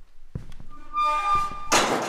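A door leaf creaks on its hinges with a drawn-out squeal, then slams shut in a corridor with a solid thud and a sharp latching clack. No one speaks.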